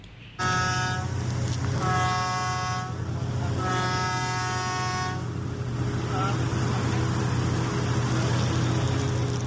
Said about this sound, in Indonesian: Gemuruh suara genset klakson anjungan pengeboran atau drilling rig